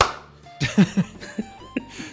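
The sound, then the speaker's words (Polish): A handful of sharp hand claps, about five, land at uneven intervals over a quiet background, moderately loud, with no one speaking. “ja klaskam.”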